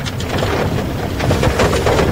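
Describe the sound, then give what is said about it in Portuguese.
A heavy tractor engine rumbles steadily as it passes in front of the town hall on a street in Santana do Livramento on a rainy morning, its low drone mixed with a wash of rain and wind hiss. No one speaks. “Chuva, chuva e chuva, Keila Lousada, e ela inicia também, no início da manhã, minha amiga Keila, passa na frente da prefeitura, tem um trator aqui, ó.”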